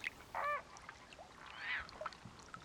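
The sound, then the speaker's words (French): Greater flamingos, advancing in a line with their heads in the water in a marsh, give a short, nasal goose-like honk, then a softer drawn-out call a moment later, over a quiet, faintly noisy background. “Ils sont marrants, ces flamants roses. Ils avancent en ligne, comme ça, la tête dans l'eau.”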